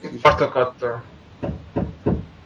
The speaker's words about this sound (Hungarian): Befejeztem, már csak kalapál a szomszéd. ja, jó, mert pont, pont mindig úgy üt az meg, hogy pont nem hallak, tehát így, jó, mindegy.